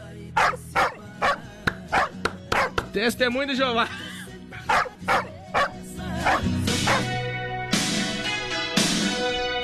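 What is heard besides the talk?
dog barking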